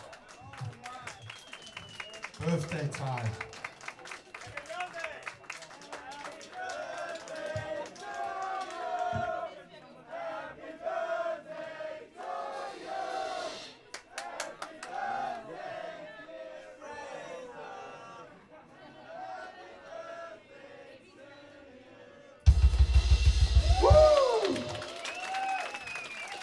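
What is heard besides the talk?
crowd applauding and cheering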